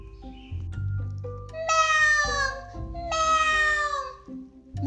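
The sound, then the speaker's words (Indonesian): A cat meows twice, calling to other cats, each call long and loud, rising and falling in pitch with a steady low hum in the background and no talking. “Poki memanggil kucing-kucing temannya.”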